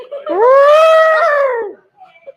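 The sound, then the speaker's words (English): A person's voice imitates an elephant trumpeting: one loud, drawn-out tonal call lasting over a second, rising slightly then sliding down, followed by a few faint small noises. “They didn't even do an elephant.”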